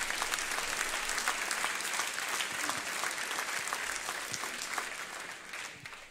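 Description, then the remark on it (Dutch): A church audience claps together in praise of the Lord, in steady, dense applause that holds for about six seconds before gradually thinning and fading at the end. No voices stand out over the clapping. “Geef de Heer een applaus daarvoor.”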